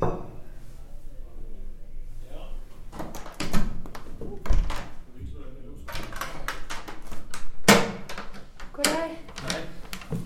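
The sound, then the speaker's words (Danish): Knocking on the office door of a sailing club's clubhouse at a harbour in Hellerup: several sharp wooden thuds scattered irregularly, with muffled, indistinct voices from inside the office and shuffling between the knocks. “Jeg kan se på et skilt på døren, at jeg er kommet uden for kontortid, men jeg kan høre stemmer inde på kontoret, så jeg banker på alligevel.”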